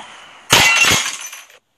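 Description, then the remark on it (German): A drinking glass with a little water in it is dropped, hits the floor and shatters with a sudden, loud crash, followed by about a second of bright tinkling shards scattering before it falls silent. No one speaks. “Dann ist das Glas nämlich geplatzt.”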